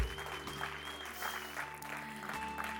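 An audience claps steadily, a dense wash of many hands at a constant, moderate level, with a faint sustained musical tone humming underneath.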